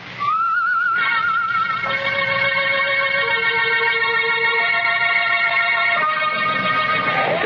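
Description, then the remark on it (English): An eerie whistled tune coming from an alley in thick fog, of long, sustained high notes that slowly glide and shift in pitch, steady and fairly loud throughout with no one speaking. “we couldn't find the guy who whistled that queer”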